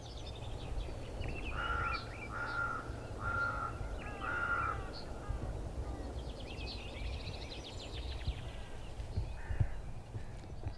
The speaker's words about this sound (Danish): Og hvis man nu bare, hvis jeg nu lige tiger stille et øjeblik, så kan jeg så kan man jo høre, at der faktisk er masser af fuglesang rundt omkring.